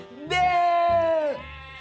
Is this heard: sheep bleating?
yes